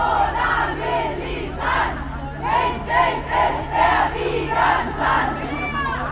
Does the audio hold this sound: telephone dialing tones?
no